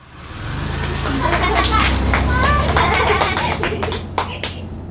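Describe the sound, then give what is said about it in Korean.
Children's voices chatter outdoors, heard through a motel room window, over a low traffic rumble, followed by a scattering of sharp hand claps near the end as the children stop their ball game and clap toward a departing taxi. “그때 창밖에서 아이들의 목소리, 박수 소리가 들려왔다.”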